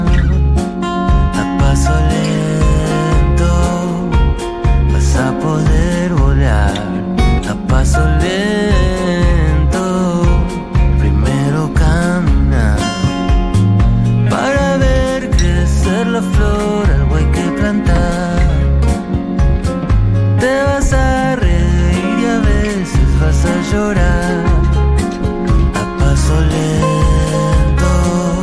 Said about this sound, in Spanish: estamos escuchando el tema de …. Mateo está tocando la guitarra sobre el tema